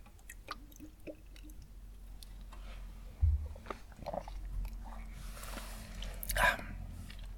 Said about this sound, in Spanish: Pausa para trago de agua.